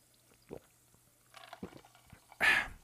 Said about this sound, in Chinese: 我们开始之前的时候，用这个气泡水给大家来干几杯哦，干几杯哦。